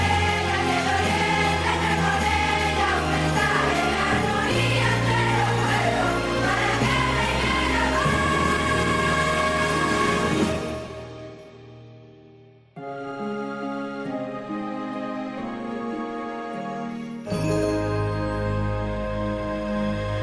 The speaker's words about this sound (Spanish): la Navidad empieza cuando suena el villancico más popular, el de Canal Sur, así que vamos a compartirlo ahora